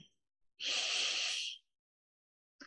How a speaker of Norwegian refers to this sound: Ja. Starte nå. Bare pust dypt inn.